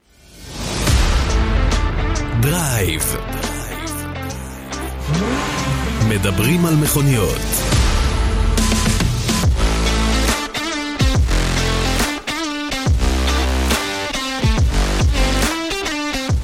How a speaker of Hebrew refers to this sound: כן, הנה המנגינה המוכרת שלנו, דרייב, אה, הפודקאסט שמדבר על מכוניות, כל מה שנמצא ליד המכוניות, אה, מתחת, מעל וכל דבר אחר, פולס.